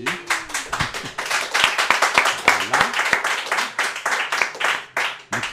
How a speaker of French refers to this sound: Bonjour, bonsoir. Sous les applaudissements de la foule.